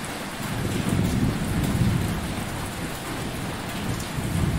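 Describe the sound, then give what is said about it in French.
Steady, heavy rain pours down while deep thunder rumbles continuously in the low end, swelling and easing without any sharp crack. No voices are present. “on s'est retrouvé en pleine nuit en moins de 15 secondes parce qu'il y a un nuage qui arrivait, c'était un orage qui se préparait”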